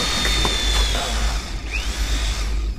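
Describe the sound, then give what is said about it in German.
A power drill runs steadily, its motor whine holding a high tone with a brief pitch dip near the end, over a continuous low rumble as screws are driven to mount a wheel onto a raft. “Also viel brauche ich dazu eigentlich nicht. Bohrmaschine, Schrauben.”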